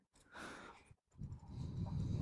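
Two breathy sniffles through the nose from a person out fishing in the cold in central Copenhagen, the first short, the second longer and rougher, separated by a brief pause, with no talking.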